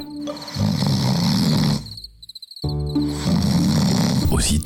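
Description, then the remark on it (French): Two long, deep, rumbling snores, loud, separated by a brief quiet breath, with crickets chirping steadily in the background. “le petit poussé entendit ronfler l'ogre”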